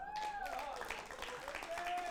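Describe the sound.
An audience applauds in a steady, dense patter of many hands, holding an even loudness throughout, with a few voices or whistle-like tones rising and falling above the clapping.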